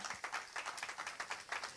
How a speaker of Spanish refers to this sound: Sí, dale un fuerte aplauso a Jesucristo.